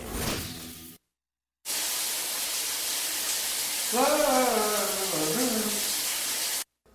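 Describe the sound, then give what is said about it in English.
A shower runs in a steady, loud hissing spray for several seconds while a voice briefly rises over it, then the water cuts off abruptly into silence. “The water just stopped in here!”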